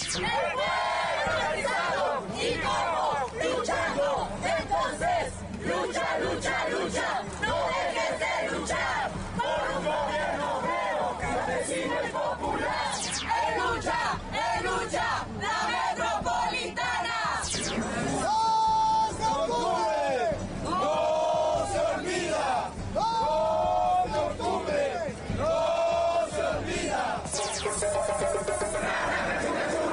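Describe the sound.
A protest crowd chants and shouts continuously for the whole stretch, many voices overlapping in a loud, steady roar, with raised voices and rhythmic outbursts rising above the babble.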